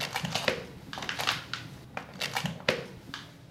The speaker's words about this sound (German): Und dann in Laborschuhen mit denen noch einmal auf eine sehr klebrige Matte. Das hört sich dann so an.